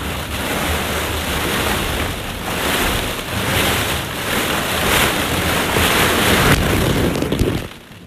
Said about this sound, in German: Und dann, ihr werdet gleich schöne Sounds hören, wie ich ähm, nur mit Socken durch ein Bällebad laufe. Hört mal rein.